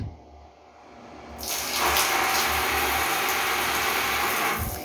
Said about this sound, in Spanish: El sonido que me gusta más es el de la ducha.